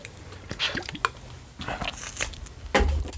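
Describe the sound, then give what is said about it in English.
Someone sips Eventide Pale Ale, with a few wet, squishy slurping and swallowing sounds in short bursts, moderately loud, and no talking. “This is their pale ale, and um, let's let's give it a shot.”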